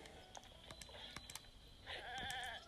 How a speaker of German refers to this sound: Okay, ich bin gleich beim Stall wieder. Ja, und das sind ganz viele hässliche Ziegen.